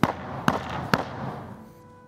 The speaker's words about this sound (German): Nimm den, äh, ja, den Türklopfer im Grunde in die Hand vorne mhm. am großen Tor und hau dreimal richtig hart dagegen.